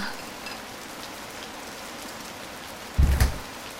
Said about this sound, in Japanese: あれ雨かあ結構雨足が強いな